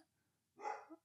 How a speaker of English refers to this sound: oh, that's the dog.